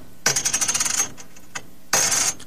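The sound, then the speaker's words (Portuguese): A fifty-centavo coin, a chunkier coin, drops onto a hard surface, ringing brightly and rattling in quick, tightening bounces before settling, then a second clear metallic clink follows a moment later. Fairly loud, no talking. “Agora, 50 centavos. Já é uma moeda mais gorducha.”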